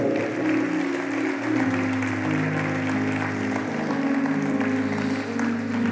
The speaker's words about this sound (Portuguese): Se você está entendendo, dê glória a Deus, aplauda esse Deus maravilhoso, soberano.